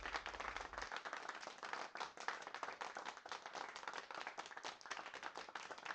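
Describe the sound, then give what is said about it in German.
Sustained applause from an audience at the end of a theatre play performed by inmates on a stage at the JVA Wuppertal-Ronsdorf prison, dense overlapping hand claps forming a steady, loud crackle throughout with no voices. “Am Ende Applaus.”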